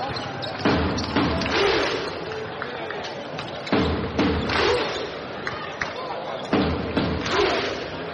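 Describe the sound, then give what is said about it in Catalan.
A large standing crowd at the Congost performs the Icelandic thunderclap, clapping in unison, loud booming claps landing slowly every few seconds over a steady roar of murmuring and shouting voices. “Comencen els ritmes.”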